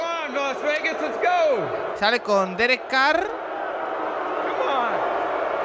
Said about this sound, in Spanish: Sale Godel. Oh. El abucheo reglamentario.